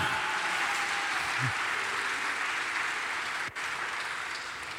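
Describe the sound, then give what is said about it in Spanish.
An audience applauds loudly and steadily for the Lord, a dense wash of many hands clapping together without pause, with faint cheers rising briefly from the crowd. “Dale un aplauso fuerte al Señor, porque algo grande está ocurriendo en este lugar.”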